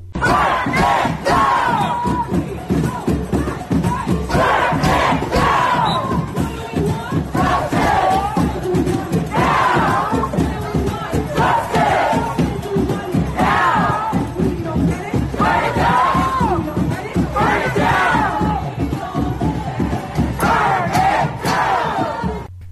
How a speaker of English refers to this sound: We're right here in New York City, right over the Brooklyn Bridge, the Barclay Center. Chaos. Chanting, burn it down, burn it down. Listen to this.